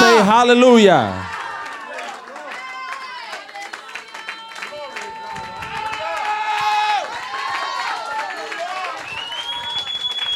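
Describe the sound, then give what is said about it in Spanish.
A church audience claps and cheers for God during a worship service without pause, dense applause mixed with scattered high whoops and shouted voices, opening with a loud, wavering vocal shout before the crowd noise settles into a steady roar. “Vamos, apláudele al Rey como que crea que Él está aquí.”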